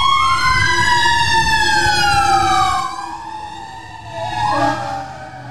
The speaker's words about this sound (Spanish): Deja que pase la, ambulancia. La ambulancia, los bomberos.